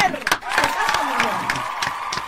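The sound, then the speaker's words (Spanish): An audience bursts into sustained applause mixed with cheering and whoops, welcoming a guest arriving on the show, a dense wash of clapping with sharp individual claps standing out, fairly loud throughout. “Ahora sí, muy bien, le damos la bienvenida a este espacio multicultural, multiétnico, con un aplauso impresionante a una judía renegada que viene hoy.”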